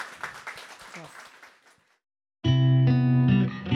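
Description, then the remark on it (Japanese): The audience at a public recording of a show applauds with dense, crackling clapping that thins out and fades over about two seconds. A short silence follows, then loud, sustained electronic music kicks in. “というわけで会場ねたくさんの拍手をいただいていると、はいいうところで”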